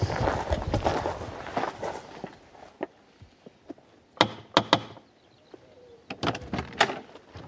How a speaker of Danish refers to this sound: Og spørgsmålet er bare, hvilken dør vi skal... Alle tre døre, og man kan godt banke på dem alle tre. Ja. Men jeg synes, vi skal tage den midterste.